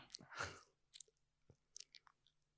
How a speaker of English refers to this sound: why are you chewing like that? It's Are you nervous? He's chewing out of nerves.